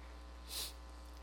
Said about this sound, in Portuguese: É, queridos, vocês é, vão ter que me aguentar aqui fungando hoje, viu? Porque eu já tomei, foi tudo, mas não tem jeito não. O ar-condicionado aqui, quando eu chego, não tem jeito.